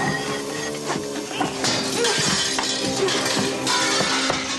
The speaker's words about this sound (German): Wieso hast du die Fensterscheibe zerschlagen?